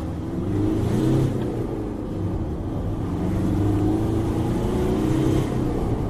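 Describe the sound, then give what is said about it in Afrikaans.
A bakkie's 131 kW 2.5-litre Mitsubishi diesel engine with 400 Nm of torque pulls steadily for several seconds, its low rumble rising in pitch in smooth sweeps as it accelerates through the five gears, fairly loud with no talking. “Die beproefde 131 kW 2.5 Mitsubishi masjien trek heel sterk deur die vyf ratte, danksy 'n stewige 400 Nm wrinkrag.”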